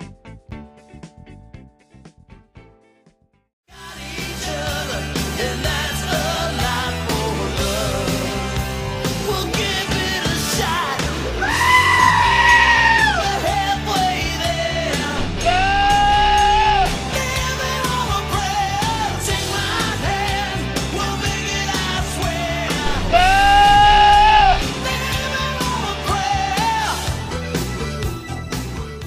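Loud, full-band rock music kicks in after a few seconds of near silence, with wavering goat bleats cutting through at intervals in place of a sung melody.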